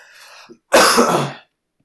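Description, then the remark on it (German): A single sharp, explosive cough bursts out loud, sounding almost like a sneeze, after a soft breathy intake; silence follows. “Das klang, nach, das klang eher nach Niesen. Ich wollte schon gerade Gesundheit sagen.”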